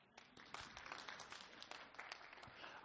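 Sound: audience applause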